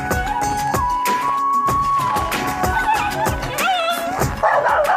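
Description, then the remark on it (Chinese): A dog wearing trousers barks in a rapid, steady series of sharp, loud yaps for several seconds, mixed with high whining yelps toward the end, with no one talking. “你快看呐、四弟带来的这条狗啊，还穿着裤子呢！”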